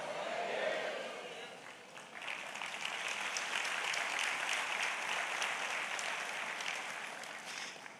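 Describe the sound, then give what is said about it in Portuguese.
An audience erupts in loud, sustained applause mixed with shouted glory to God and cheering voices, a dense wash of clapping and crowd noise that carries on steadily for several seconds. “Se você crê e recebe, dá um glória a Deus bem alto.”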